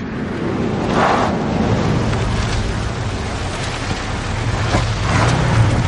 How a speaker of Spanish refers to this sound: Un todoterreno circula por una carretera.